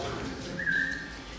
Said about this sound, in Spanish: Así debo silbarlo cuando ustedes no me, no, no, me responden.